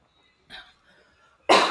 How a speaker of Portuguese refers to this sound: De eu tossindo. Tem essa questão de você tossindo.